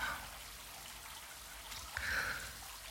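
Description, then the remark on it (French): Water runs steadily from a shower as steam fills the room, a continuous hiss with a brief splashier surge near the end. No one speaks. “Le bruit de l'eau, la vapeur qui envahit la pièce.”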